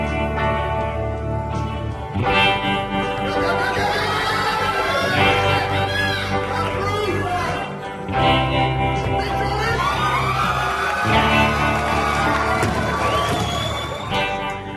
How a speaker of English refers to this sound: That's the sound of Cheryl Haworth during a weightlifting competition.